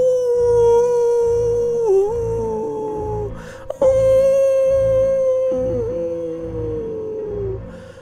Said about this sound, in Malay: dan bunyi itu masih lagi berada di hadapan pintu bilik kami. Jadi cuba bayangkan pendengar-pendengar Nina Bobo Pokas. Au au au au au. Au bunyi anjing ni tiba-tiba tukar jadi bunyi sepi menangis. Au au au.